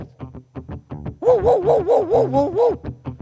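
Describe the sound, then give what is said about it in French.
A chained dog barks in a rapid string of short yaps, breaks into a long wavering whining howl, then returns to a few more quick barks. “Grand-mère les chats feules, les chiens enchaînés continuent d'aboyer sans maudire.”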